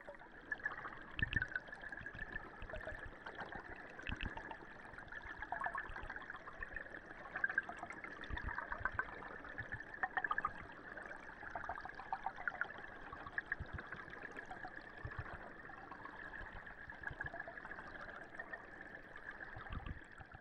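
River water flowing steadily in a city along the Bride river, a continuous rushing babble with small splashy ripples, alone with no voices for the whole stretch.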